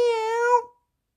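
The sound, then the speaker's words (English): A person voices a single drawn-out meow, imitating a cougar (American lion): a steady, fairly loud, nasal tone lasting just over half a second, then silence. “I see him. He sees me. Meow.”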